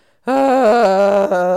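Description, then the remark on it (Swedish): A person breathes out with a sustained, loud moaning exhale, a steady voiced groan made to cope with pain, somewhat like someone giving birth but more low-key, with slight wavering pitch and a brief dip near the end. “Alltså att man andas mm. ut och gör ljud så att man låter så här.”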